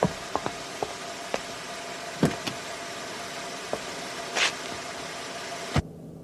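A car engine idles with a steady low rumble, punctuated by scattered clicks and a brief hissing burst, then a sharp thump cuts it off into near silence.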